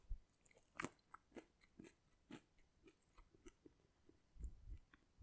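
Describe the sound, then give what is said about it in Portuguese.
Quiet chewing of food with a series of soft crunches and bites repeating irregularly, mouth sounds and a few breaths between them, with no one talking. “Estou a mastigar, calma.”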